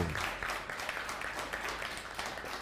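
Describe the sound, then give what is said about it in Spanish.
A crowd applauds steadily for God (the Eternal), many hands clapping in a dense, continuous patter that stays fairly even in loudness throughout, with no one speaking over it. “Que se escuchen los aplausos para el Eterno.”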